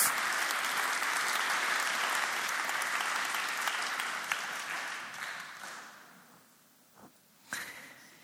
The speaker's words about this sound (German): Es sind inzwischen seit weit über mindestens zehn Bands, über 60 Personen. Vielen herzlichen Dank euch. Und auch Ihnen einen fetten Applaus.